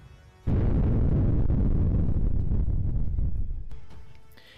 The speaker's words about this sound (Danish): Her er så lyden fra en eksplosion af en atombombe.